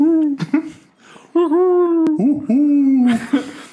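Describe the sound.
A person imitates an owl, voicing a few long, steady hoots, each held for about a second, ending in a breathy trailing hoot.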